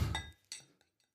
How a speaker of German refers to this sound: ja, das funktioniert und das ist auch der Moment, Super. wo ich mir mein Getränk endlich einschenke.